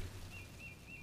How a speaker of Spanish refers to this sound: Oh, espera, está amaneciendo. Escuchan a las aves cantar y a los árboles bailar.